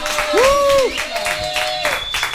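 A short burst of applause with steady clapping throughout, joined by a high, drawn-out cheer or whoop that rises and falls over the clapping.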